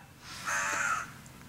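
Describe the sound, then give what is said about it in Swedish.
A magpie outside the window lets out one short, harsh, raspy call lasting about half a second, fairly clear against a quiet background with no one talking. “skatan utanför fönstret håller med.”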